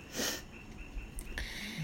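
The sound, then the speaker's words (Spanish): Someone snores with a short, rough, breathy snort, followed by a quieter lingering hum and the start of another raspy breath near the end. There is no talking. “Lo está roncando.”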